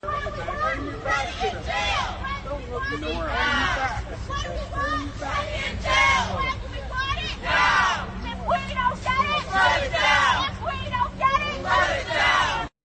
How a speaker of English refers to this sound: But listen today, this is the anti-marine protesters and this is what they were chanting and shouting about Daniel Penny at the protest trying to drown out those who were supporting the marine. Listen to this.